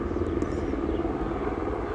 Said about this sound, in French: Je vais juste laisser euh, l'épisode, euh, l'hélicoptère passer là.